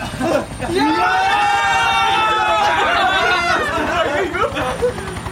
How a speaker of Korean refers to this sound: 하늘에서 우르릉 소리가 들리기 시작했다. 먼 상공에 직승기, 즉 헬기 동체가 나타난 것이 보였다. 저기 직승기가 온다.